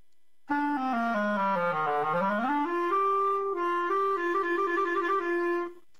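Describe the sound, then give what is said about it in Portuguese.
A clarinet plays a short run of test notes as a sound check for a listener and online viewers, starting with a long tone that sags in pitch and bends back up, then settles into steady sustained notes; loud, solo, with no talking. “Só vou dar um toque aqui para ver se você está ouvindo bem aí e os internautas.”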